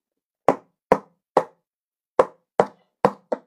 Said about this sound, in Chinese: 我有主意了，我可以拿饼干盒当鼓啊！小猴子举起自己的饼干盒，拍了起来